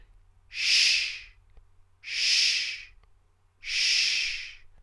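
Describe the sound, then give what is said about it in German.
Three long, breathy "sh" hisses from a voice, made by sending air up from the belly rather than forming a T with the tongue, each swelling and fading over about a second, evenly spaced with quiet gaps between them. The hissing is bright and airy, with no words spoken. “Man kann aber auch vom Bauch unten die Luft nach oben schicken und hat dann nur das SCH.”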